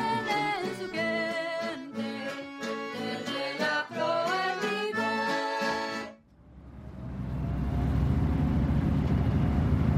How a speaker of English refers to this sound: Nine ferry boats with four diesels apiece run constantly between the mainland and the island. Eh, the ferries serve their function, but they just aren't enough.